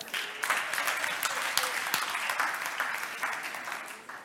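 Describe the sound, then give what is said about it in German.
A crowd applauds steadily for about four seconds, a dense, even patter of many hands clapping at once that holds its level before easing off slightly at the end. “Erstmal einen Applaus für alle.”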